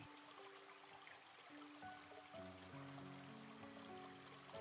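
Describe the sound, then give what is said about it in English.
Soft, steady flowing water from a gently bubbling stream, quiet and continuous, with sustained mellow musical tones drifting over it. “Keep watching the stream and listen to the sounds of the water floating down the stream. The bubbling and softly popping sound of the water.”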